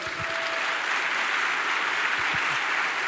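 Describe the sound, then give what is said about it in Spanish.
An audience applauds for the Lord, a dense, steady wash of clapping at an even, loud level throughout, with no voices standing out. “¿Por qué no le das un aplauso al Señor?”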